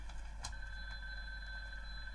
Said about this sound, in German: Ihr seht also, das Telefon klingelt, man soll fertig werden.